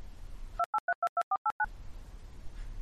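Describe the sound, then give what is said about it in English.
An editing tone marking where a segment of recording has been removed: a rapid run of eight short, evenly spaced touch-tone beeps lasting about a second, loud and clean. The faint background hiss drops out while they play and returns afterward. No one speaks. “Whenever this happens, you'll hear our editor's tone”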